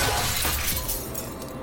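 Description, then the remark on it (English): A mirror shatters with a loud crash as a billiard ball is thrown into it, bright glassy fragments tinkling and scattering over a second and a half before thinning out. “She says, thank God, picks it up, throws it at the mirror, and smashes it.”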